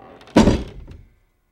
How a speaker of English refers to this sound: The old man grabbed the same axe he used to sever the tail and headed towards the door. The banging stopped. He raised the axe with one hand and threw the door wide open.